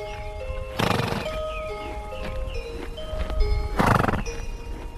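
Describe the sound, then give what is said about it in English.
Horses neigh and whinny in high, wavering calls, with two loud snorting bursts and hooves clopping on a hard surface underneath. No one speaks. “horses have this sour, sweet, acrid smell, very warm smell.”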